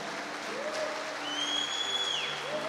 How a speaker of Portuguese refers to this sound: Você está entendendo o que é isso? entende, então aplaude Jesus, meu irmão.